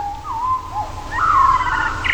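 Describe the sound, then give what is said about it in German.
A blackbird sings a short sequence of fluting, whistled notes that slide and rise, growing louder toward a sustained phrase, with a low background rumble underneath. “die bemerkenswerte Tonfolge dieser Amsel, die wahrscheinlich am Kindergarten gesessen hat und äh, dann mal sich gedacht hat, was die können, das können wir auch.”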